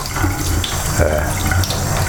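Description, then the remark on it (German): A cold tap runs steadily with water splashing over used tea bags held beneath it, a continuous rushing hiss with slight shifts as the flow is disturbed. “Die Beutel halte ich jetzt kurz nochmal unter Kaltwasser.”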